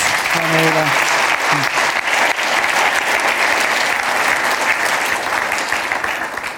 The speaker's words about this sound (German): Danke. Danke vielmals. Gebt nochmal einen Applaus.